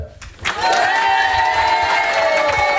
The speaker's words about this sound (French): Bienvenue sur Fréquence Plus. Merci de faire un maximum de bruit